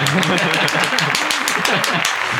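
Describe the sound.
A crowd applauds with dense, continuous hand clapping that stays loud and steady throughout, with scattered sharper claps standing out and voices faintly mixed into the noise.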